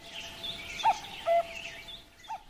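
A cuckoo calls its two-note cuckoo, a short note then a longer one, with a faint further note after a pause, over a steady hiss of outdoor ambience.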